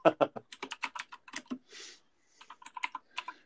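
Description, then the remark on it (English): Rapid clacking of a spring mechanical keyboard, a quick burst of keystrokes, a brief pause with a soft swish, then more clicks in an uneven rhythm, fairly loud, with no voices. “I have those uh, spring keyboards so I can play World of Warcraft.”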